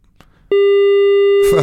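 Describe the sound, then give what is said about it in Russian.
A loud, steady telephone line tone sounds once for about a second, like a busy signal beep, before a voice cuts in right at the end. “Второй вариант пошли гудки. Давайте перенаберем Елену Аракелян.”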